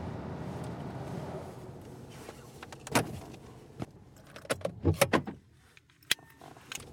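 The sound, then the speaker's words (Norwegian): A car engine rumbles and then cuts out as the car stops outside a light-green house in snow in mid-January, followed by an irregular jangle of keys and a few sharp clicks, with no voices. “Vi stopper bilen utenfor et lysegrønt hus og går opp en liten gangsti mot inngangsdøra.”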